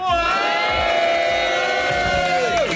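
An audience cheers and whoops loudly, a dense, sustained roar of voices with high ringing shouts running through it for about three seconds before a pitch drops off at the end.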